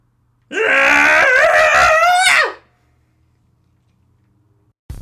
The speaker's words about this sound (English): let's go ahead and let's do a cathartic scream and let them all out as best as we can